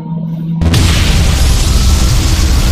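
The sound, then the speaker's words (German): A low electric hum in the air for about half a second, then an abrupt, loud booming laser blast, fired outside a palisade and sweeping from left to right, that erupts and roars continuously to the end, with no speech. “Und was ihr auch beide sehen könnt und alle hört, ihr hört so ein leichtes Surren in der Luft und kurz darauf ein Laser,”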